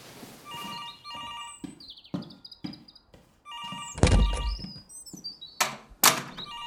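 A telephone rings in repeated bright electronic bursts, mixed with several dull thumps and a loud clattering bang partway through. No one speaks.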